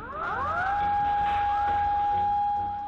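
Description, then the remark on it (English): A loud emergency siren in Tokyo, Japan, warning of an approaching tsunami after an earthquake, winds up quickly to a high, steady wailing tone and holds it, with a dense rumble of background noise and no voices. “And then the sirens started going off a tsunami was on the way.”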